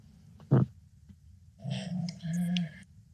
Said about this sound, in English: Can you guys hear … in the background snoring?